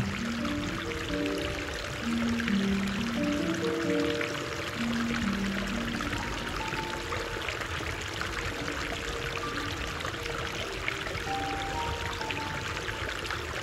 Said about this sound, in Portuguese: Os motivos celestiais pintados nos afrescos do teto o som das águas fluindo.